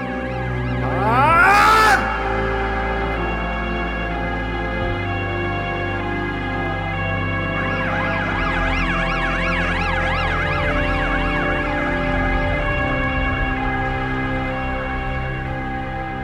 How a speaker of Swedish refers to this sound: I periferin hör han ljudet av polissirener som närmar sig blundar och känslan av svek bultar i hans inre.